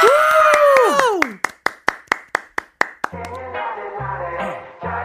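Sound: audience clapping and cheering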